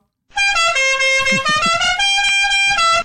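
A car horn blares in one sustained, loud honk lasting nearly three seconds, its pitch wavering slightly, with faint low rumbling underneath.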